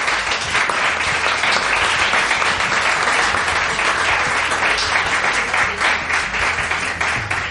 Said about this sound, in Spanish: Y ya no hay más preguntas, así que bueno, pues creo que podemos despedir con pues un fuerte aplauso.